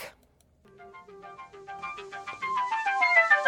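A bright, plinking electronic melody fades in after a brief pause, its chime-like notes repeating in a steady rhythm and building in loudness and pitch as more layers join. No one speaks.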